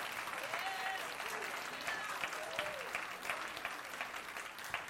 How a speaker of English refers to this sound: Can you take 10 seconds and just give God a hand clap of praise? Just show the, show the world that, that you still have some enthusiasm.